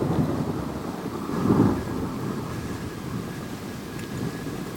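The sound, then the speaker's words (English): A raging storm, called a blizzard in June, roars with dense, rumbling low noise and a swell of thunder around the midpoint, wind and rain hissing steadily throughout with no voices. “This is no natural storm.”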